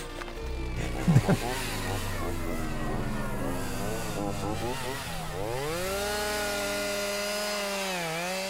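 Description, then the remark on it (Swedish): Chainsaws cut down trees in the beach forest at Tylösand in Halmstad, Sweden, in August 2018, their engines whining loudly and continuously, the pitch rising and sagging as the blades bite and rev, with a few sharp knocks early on. “Det rivande, obevekliga ljudet av motorsågar.”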